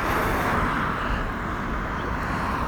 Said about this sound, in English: You can probably hear some of the cars um, that I'm now I'm now back on the main road that I uh, walks here on. Um, so forgive me if you don't like the sound of traffic.